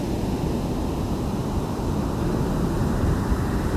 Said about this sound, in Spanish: Estas olas que rompen son para ti.